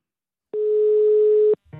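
A single steady telephone ringback tone during an outgoing call, one continuous one-second beep at a clear, moderate level, ending abruptly before a brief click as the line picks up.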